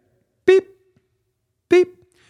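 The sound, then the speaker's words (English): A voice mimics a heart monitor like those in TV shows such as Marcus Welby or ER, with two short, steady, mid-pitched beeps about a second apart, each one a clipped, loud tone followed by quiet. “Think of that heart monitor, you know, in the in the shows, Marcus Welby or whatever the ER or the TV shows.”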